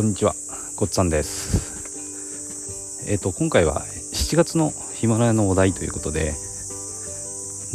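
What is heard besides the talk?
cicadas singing outdoors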